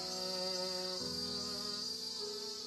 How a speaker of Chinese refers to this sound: 蜜蜂们在花蕾上采蜜。阿妹小心翼翼地看着，两只金色的小蜜蜂似乎在跟他们打招呼，翻了个跟头，嗡一下飞开，落在栀子花上，翅膀迎着阳光，轻薄透亮的。